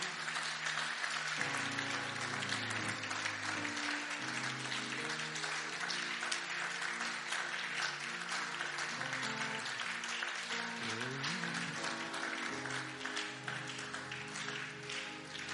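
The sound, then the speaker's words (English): A church audience claps steadily and loudly for Jesus during worship, a dense wash of many hands, with sustained keyboard or organ chords playing underneath. “Let's clap for Jesus again.”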